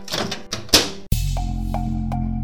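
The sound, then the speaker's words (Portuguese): A cabin door swings shut with a solid thunk, followed at once by a steady low mechanical hum inside the enclosed cabin. “Apertem os cintos, coloque o capacete, estou fechando a porta.”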